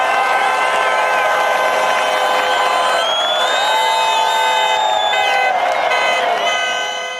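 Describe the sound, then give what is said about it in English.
A large crowd cheers wildly and nonstop, a dense roar of many voices with high shouts and whoops rising above it, staying loud throughout before easing slightly at the end. “Glazed sugar and old fashioned donuts stand up in the rubble, cheering wildly.”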